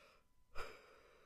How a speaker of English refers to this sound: Excuse me. Oh, wait, I think my mic has a mute button. I should try pushing that when I yawn.